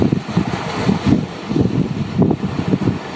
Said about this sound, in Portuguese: um amanhecer muito bonito, um, um vento quente